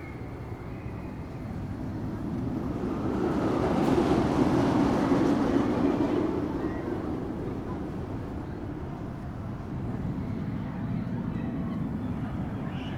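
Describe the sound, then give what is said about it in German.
The MP Express roller coaster train leaves the top of the hill and rumbles down the drop, a continuous heavy rolling roar that swells louder midway through, then settles into a steady clatter. No voices. “Ich stehe jetzt hier am MP Express und jetzt könnt ihr gleich ein paar Impressionen hören, denn jetzt verlässt der Zug da oben den Hill und kommt runter.”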